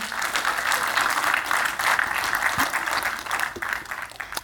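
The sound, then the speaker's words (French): An audience applauds steadily, a dense wash of many hands clapping at an even, fairly loud level for several seconds without pause. “Alors, hein, c'est une bonne nouvelle, on peut applaudir le Seigneur là-dessus.”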